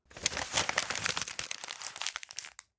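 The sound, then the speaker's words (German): Thick, light-brown paper being crumpled up by an elderly gentleman, a dense run of crisp crackles and crinkles lasting a couple of seconds before stopping abruptly, with no voices. “Genau, er hat's zerknüllt.”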